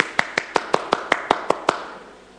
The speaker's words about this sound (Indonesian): tepuk tangan